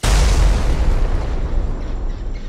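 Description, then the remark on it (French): A huge gunpowder explosion erupts suddenly and loudly as the powder in 40 barrels at the back of a cave ignites from a lit pipe, followed by a deep, rolling rumble that roars on and fades only slightly over a couple of seconds, with no voices. “C'est là qu'une énorme explosion se produit alors qu'il arrive auprès de Robinson.”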